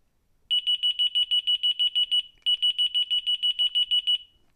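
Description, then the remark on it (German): A loud, piercing electronic alert tone from a wireless receiver, triggered by its fourth button, pulses in rapid, evenly spaced beeps, pauses briefly, then resumes the same fast beeping pattern, with no talking. “Jetzt hören wir uns mal die vierte Taste an.”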